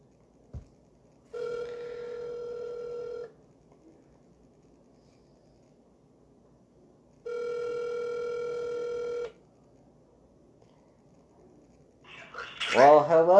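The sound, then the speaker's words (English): A phone line rings out twice as a call is dialed to a guest, each steady electronic ringback tone lasting about two seconds with a long quiet gap between, before a voice briefly picks up at the very end. “So, as we get on the phone here, let's do it.”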